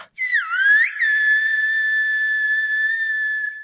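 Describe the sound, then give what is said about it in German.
A loud, clear human whistle in Silbo Gomero, the whistled language of the Spanish island of La Gomera: a short swooping, gliding phrase at the start, then one long sustained steady tone, heard alone with no talking. “So hört er sich an, der Gomera-Pfiff.”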